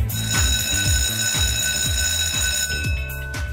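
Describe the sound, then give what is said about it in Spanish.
A school bell rings loudly and continuously, a harsh metallic electric clatter with steady ringing overtones that fills the whole moment without pause, marking the start of the last class of the year. “Suena el timbre y parte la última clase de este año con el profesor Cristian Arcos.”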